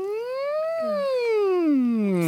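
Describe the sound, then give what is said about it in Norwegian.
A single voice does the siren vocal exercise, one sustained wordless glide that rises slowly in pitch, peaks, then sinks back down over about two seconds, steady and fairly loud. “Eh, men da hadde hun det som hun kaller sirenen, da, som er den mm,”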